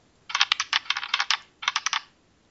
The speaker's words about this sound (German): Würfel mal die Seite. Okay. Wir suchen uns eine Seite aus.